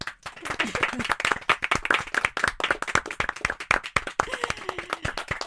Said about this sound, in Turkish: Ben şimdi e, bu programla harekete geçen tüm gençler ve tüm öğretmenler için hep birlikte bir alkış rica ediyorum.